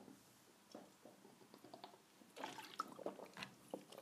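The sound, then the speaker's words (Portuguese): Someone takes a few quiet sips of water, with soft wet slurps and small swallowing sounds spaced irregularly, and no talking. “deixei me só beber um bocadinho de água.”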